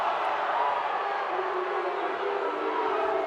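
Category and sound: crowd, crowd booing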